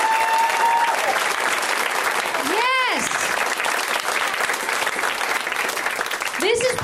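A live comedy show crowd applauds loudly and steadily for all the comics on the show, with rising and falling whoops or whistles cutting through partway in and again at the end.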